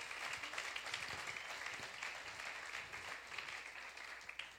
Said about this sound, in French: Est-ce qu'on peut l'applaudir? Vraiment.